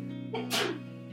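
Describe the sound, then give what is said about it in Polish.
A single sharp sneeze bursts out, a brief inhaled buildup followed by an explosive, breathy release, with a faint steady hum underneath. “Na zdrowie.”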